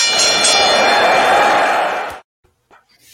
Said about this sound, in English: So if you're ready, sir, I got a bell to ring.